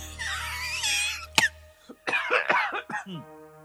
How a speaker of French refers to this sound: Quand tu ris tellement fort que tu tousses.